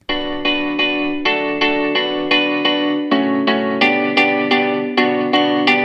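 An electronic house song plays on Top Latino Radio: loud, bright layered synth chords pulse in a steady rhythm of repeated stabs with a washy, effected sheen. No singing or talking is heard.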